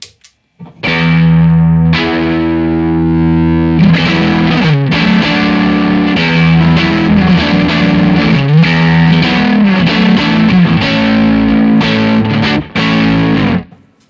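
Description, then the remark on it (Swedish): A solo electric guitar played through a Baby Pink overdrive pedal, sustained crunchy chords and riffs ringing loud with a gritty, saturated tone and no voices. “Jag fick aldrig testa bara, bara babypinken.”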